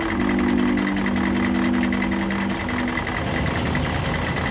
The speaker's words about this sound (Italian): Il camion inchioda. I tuoi rapitori scendono dal veicolo, aprono la portiera, siete arrivati.